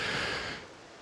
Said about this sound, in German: ähm, weil es regnet leider. Ja, ja, Schade. man hört's. Ne? Genau, man hört es im Hintergrund.